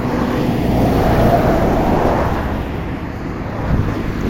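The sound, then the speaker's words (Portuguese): Steady, loud low rumble of passing traffic, with trucks and cars going by on the street, swelling and easing over a few seconds with some wind buffeting the microphone. “passa caminhão, e passa carro pra caralho.”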